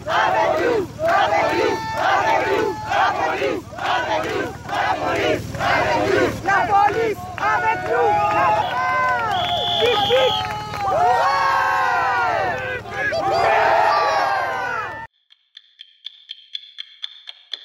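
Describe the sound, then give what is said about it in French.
A loud, dense crowd of yellow vest protesters facing police in Carcassonne, France, shouting and chanting together, voices rising and overlapping continuously for about fifteen seconds before cutting off abruptly, followed by faint scattered taps. “Dissidence, la police met les gilets jaunes à Carcassonne. Écoutez.”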